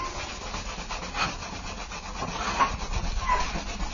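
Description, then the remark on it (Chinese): Steady, rhythmic rasping as a fan is sanded by hand with scouring rush, a Chinese medicinal herb used in place of sandpaper; a continuous dry scratching that swells in repeated strokes with no voices. Sanding one fan takes about half an hour. “这一个扇子那个这样磨的话，一个扇子可能要花大概半个小时。”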